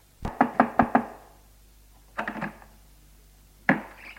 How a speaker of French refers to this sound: On frappe, la porte s'ouvre.